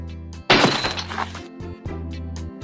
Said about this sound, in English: The glass box falls.